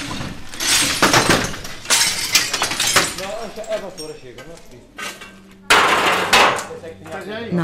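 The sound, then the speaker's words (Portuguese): Repeated crashes of breaking glass and clattering debris as roof tiles, glass and metal gutters from the remains of houses are thrown down to the ground in the village of Lagiosa, near Oliveira do Hospital; loud bursts separated by brief pauses, with voices talking in the background. “aldeia de Lagiosa, às portas de Oliveira do Hospital, já se ouvem as telhas, vidros e calhas, restos de casa que agora são deitados por segurança ao chão.”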